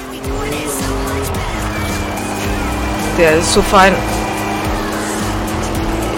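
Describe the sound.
A racing car engine drones steadily in a video game, with a brief burst of tire squeal midway, while a man talks over the action and music plays in the background.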